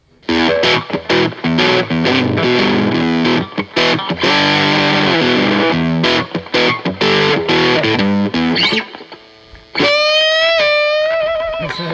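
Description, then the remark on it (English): Crunchy, overdriven electric guitar played alone through a Marshall-style overdrive pedal, loud: chunky chords and riffs with a boxy, dark tone, ending on a sustained, bending lead note. “into more of that kind of crunchy, boxy, darker sound”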